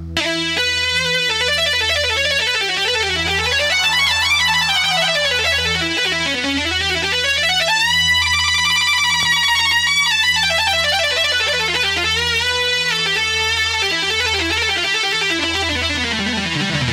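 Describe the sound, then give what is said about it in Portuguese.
An electronic keyboard solo plays a busy melody of rising and falling runs over a steady pulsing bass, bright and sustained, at an even volume throughout with no talking. “Faz aí um solo de teclado.”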